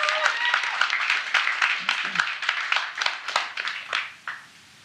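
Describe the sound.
A crowd applauds in a dense, steady wash of clapping that carries on for several seconds before tapering off and dying away near the end, with a few voices mixed in.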